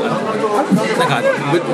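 A steady murmur of overlapping voices, friends chatting at the next table in a Japanese drinking bar, with several people talking at once at moderate, even loudness and no single voice standing out.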